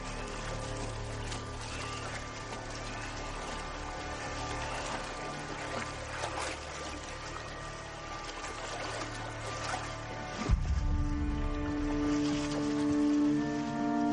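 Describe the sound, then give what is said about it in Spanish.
Steady, continuous sloshing and trickling of water as English soldiers wade waist-deep through a river under a thin layer of mist on the surface, with a low rumbling undertone and a brief heavier splash partway through. No one speaks. “Los ingleses caminan con el agua por la cintura.”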